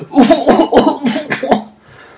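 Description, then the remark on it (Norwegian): A musician coughs a quick run of about five harsh coughs, one after another, in a burst lasting under two seconds before trailing off into quiet, caused by a spider lodged low in his throat. “Så han begynte å hoste.”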